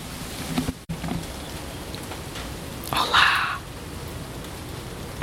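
Steady rain patters down in the woods, a soft continuous hiss of drops with a brief brighter rustle midway, no voices present.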